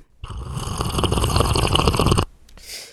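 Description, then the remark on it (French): A person slurps soup loudly in one long, wet, sucking draw lasting about two seconds, followed after a brief pause by a shorter, softer slurp. “on a tous quelqu'un dans notre famille ou dans notre entourage qui savoure bruyamment euh, sa soupe.”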